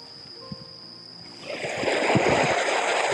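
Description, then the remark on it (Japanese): Calm sea waves lap gently on the shore at Hayama, a quiet moment before a soft wash of water swells up and keeps rushing. No one speaks. A cloudy, cool, slightly windy Saturday evening just after sunset. “波はすごい穏やかで”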